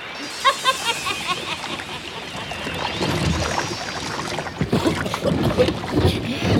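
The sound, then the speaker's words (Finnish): Water churns and splashes heavily against a small boat, with rough sloshing surges that grow louder and more turbulent as it's tossed about, a brief wavering tone sounding near the start. “ylös alas keinuta, venettä vinhasti heiluta, kunnes ympäri pyörähtää lastinsa aaltoihin tyhjentää.”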